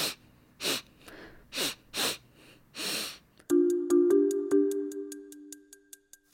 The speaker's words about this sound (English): Okay, so I heard some sniffing, but I'm not sure exactly what that is. Well, sniffing is a really important clue there. What is someone doing when they're sniffing?